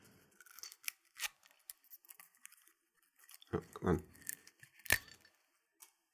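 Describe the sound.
Crinkly tearing and crackling of copper foil being pulled off a bottle of Scottish blended spirit by its zip strip, in short bursts, with a brief muttered remark partway through and a sharper rip near the end.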